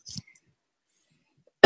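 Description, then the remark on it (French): A short, rough cough bursts out, then a long silence, then another loud, abrupt burst cuts in right at the end. No talking. “Malgré la toux, j'arrive quand même à chanter, donc euh, tant mieux.”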